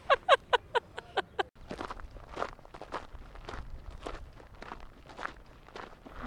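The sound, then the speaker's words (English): Footsteps walk steadily outdoors at twilight, clear, opening with several sharp, crisp steps before settling into a softer, continuous rhythm of crunching strides. “and I am out on a walk in the twilight”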